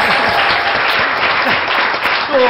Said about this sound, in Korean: 이런 때 기본적으로 박수를 살살 해주면 분위기가 좋아져.